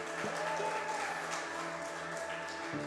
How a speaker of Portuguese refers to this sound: Aplauda Jesus bem alto, gente.